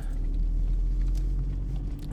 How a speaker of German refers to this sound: Ja, auch Autofahren ist scheiße, ne? Also so den ganzen Tag im Auto sitzen und durch die Gegend ballern, das ist auch kacke